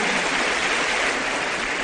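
A standing crowd at a business development seminar gives a loud welcome applause for first-time attendees, a dense, even wash of many hands clapping that stays loud and constant throughout with no voices heard.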